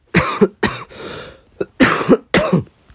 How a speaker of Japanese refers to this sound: 失礼。本当に音の世界だけのラジオの中で咳をするというのはとんでもない無礼なことなのかもしれないけれど申し訳ないですね